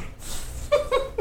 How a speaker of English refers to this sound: That's Chunk. That's the dog. I might keep that in just for reference of the weird ass noises this fucking dog makes. He's like, he just rolls around.